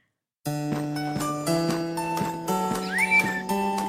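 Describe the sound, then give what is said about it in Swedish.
A bright, bouncy children's TV theme tune plays on its own: steady melodic notes on a clip-clop beat, with a short sliding whistle-like note near the end. “Ja, Björnes magasin.”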